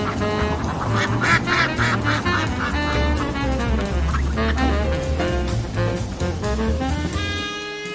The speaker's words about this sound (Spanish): ¿Patos?